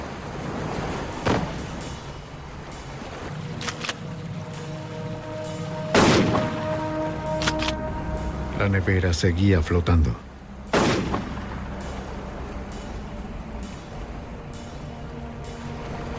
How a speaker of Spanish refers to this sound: El ataúd improvisado flotó. Thomas le ordenó a Jerry que le disparara a la nevera para hundirla.